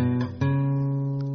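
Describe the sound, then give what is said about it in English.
A few plucked guitar notes climb in quick succession, a G scale played with a C sharp, then one note rings out, sustained for about a second before another begins. Clear, with no talking. “And that C sharp is certainly not part of the G scale because if it were, our G scale would sound like this.”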